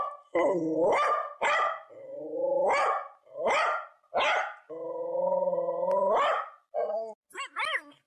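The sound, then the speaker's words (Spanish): A guide dog barks loudly in an irregular series of sharp barks mixed with longer, drawn-out whining howls that bend upward in pitch, with nobody talking. “Este peludo del que les estamos hablando se hizo famoso recientemente y es que este perro es un perro guía, pero uno muy diferente a los que solemos ver acompañando a personas invidentes.”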